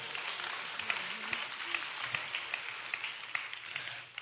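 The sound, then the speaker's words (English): A crowd of people clapping their hands together, a dense, steady patter with a few sharper claps standing out at a fairly even beat. The applause is fairly soft and continues throughout without voices. “Can I get a hand clap from somebody?”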